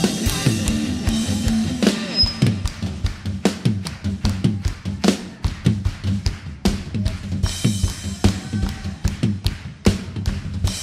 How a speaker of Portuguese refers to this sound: bateria, as palmas bem forte. Ei!